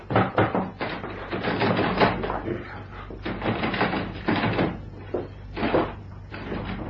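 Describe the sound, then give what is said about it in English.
A door bolted on the inside is rattled and shoved repeatedly, in a series of clattering jolts and thumps that come in uneven bursts for several seconds. “Seems bolted on the inside, sir.”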